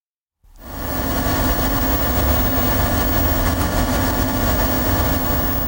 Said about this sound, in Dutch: Eh, de grootste uitdaging bij het ontwikkelen van een quantumcomputer is de warmte. Wat je nu hoort zijn de koelcellen op de TU Delft, waar ehm, onderzoekers van het Q-Tech Instituut, dat is een instituut dat bestaat uit slimme koppen van de TU